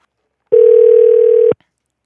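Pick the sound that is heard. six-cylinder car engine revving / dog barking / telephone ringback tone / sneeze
telephone ringback tone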